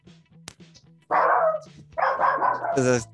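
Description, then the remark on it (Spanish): A frightened pet dog barks and yelps in loud, strained bursts, with a steady low hum running underneath and a sharper, higher yelp at the end. “Y eso es mi perro que sigue ladrando.”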